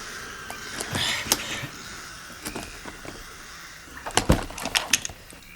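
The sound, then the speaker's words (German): A key scrapes and clicks in the lock of a locked wooden chest set on a table, followed by a cluster of sharp wooden knocks and rattles as the lid is worked open, with no voices. “Ich werde die Kiste öffnen.”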